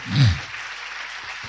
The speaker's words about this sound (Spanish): Dele fuerte el aplauso si es para el Señor. Fuerte.